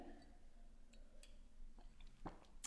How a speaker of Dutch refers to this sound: Ik neem heel even een slokje.